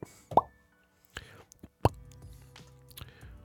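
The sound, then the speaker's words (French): Two soft, rounded plops spaced about a second and a half apart, clear, a pin sound effect as something is pinned on Instagram, with faint breathy voice sounds and quiet murmuring in the background. “On son d'épingle.”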